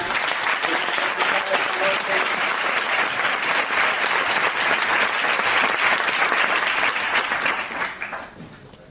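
Sustained applause from an audience, a dense wash of clapping holding steady for about eight seconds before fading out at the end.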